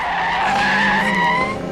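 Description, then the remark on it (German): A car skids hard with a loud, sustained tire squeal, the high screech wavering for nearly two seconds as it brakes to a stop after someone jumps in front of it. No voices. “Vorsicht, Skinny, das Auto!”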